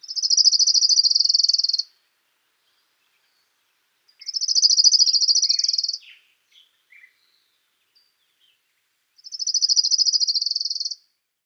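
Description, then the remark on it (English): An orange-crowned warbler sings three high, even trills, each lasting about two seconds with pauses between, clear, with a few faint soft notes in one gap, along the trail to the blind at Ridgefield National Wildlife Refuge. “Look and listen for the orange crowned warbler,”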